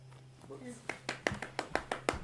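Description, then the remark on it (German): A single person claps their hands about eight times in a steady, even rhythm, fairly loud, preceded by a brief faint murmur of voice. “Ich applaudiere.”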